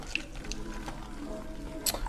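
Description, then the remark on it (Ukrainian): Lemonade trickles into a cup in a steady pour lasting a couple of seconds, with soft liquid gurgling and a few bright clinks near the end. “Наливай. Може в косі чашки, може налити ще лимонад.”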